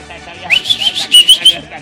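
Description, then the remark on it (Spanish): A person whistles a short, high, wavering run of shrill notes in quick pulses over a noisy festive background with faint voices, at a 70th birthday celebration. “¡Viva la fiesta! chifle!”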